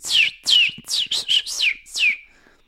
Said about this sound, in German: das Einzige, was mich beruhigt, sind Vögel. Das ist, das ist schön, ja.